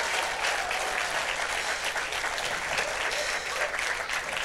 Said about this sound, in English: Can we just give them a really big round of applause?